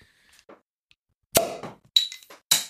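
A bottle of cold alcoholic drink being opened outdoors: a sharp pop with a short ringing tail, then a couple of bright glassy clinks. Nobody speaks.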